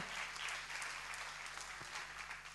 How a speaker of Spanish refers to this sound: Dale fuerte ese aplauso al Señor.